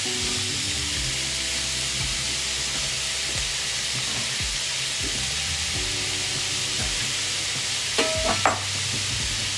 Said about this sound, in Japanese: 昆布だしを入れてあと何で炒めようかなあと塩コショウでいかこれが一番美味しいよねで最後卵で閉じるからさ